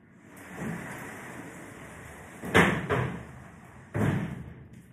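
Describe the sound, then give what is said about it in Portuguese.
A door inside a house swings and shuts with a couple of solid thuds, one around the middle and another near the end, against a steady background hiss. “Deixa eu só fechar a porta para não vir barulho aqui mesmo.”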